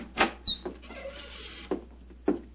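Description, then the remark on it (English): An unlocked house door is opened: a couple of sharp latch clicks and knocks, a drawn-out creaky scrape as it swings, then a few more bumps, moderately loud, with no voices. “Don't you think perhaps we could try the door”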